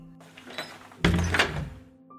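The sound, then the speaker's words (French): A door swings and shuts with a single solid, muffled thud, followed by a brief fading rumble and quiet. “Et pire que ça, durant cette plaie de l'obscurité, les Égyptiens entendaient de drôles de bruits, des portes qui s'ouvraient et qui se refermaient.”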